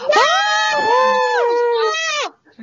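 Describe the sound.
A loud, drawn-out cry of joy from a single voice, rising and wavering in pitch for about two seconds before breaking off, followed by a brief faint sound.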